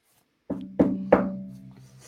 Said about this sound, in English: you hear that? You hear that knock?